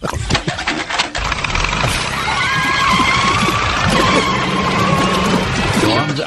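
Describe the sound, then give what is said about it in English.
A car engine cranks with rapid sputtering bursts, then catches and runs loudly and roughly, with a high, wavering whine riding over the rumble, filling the whole recording. It is the speaker's own car, recorded in the morning when setting off for work. “This I recorded this myself out of my car this morning. this is me coming to work this morning.”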